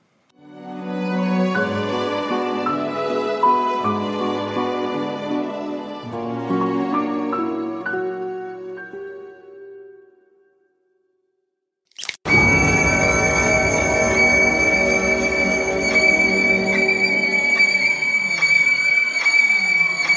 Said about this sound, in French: Ben non, euh, c'est un extrait musical euh, pour vous faire un peu euh, un petit aperçu de la bande son du film qui est, qui est vraiment très, belle.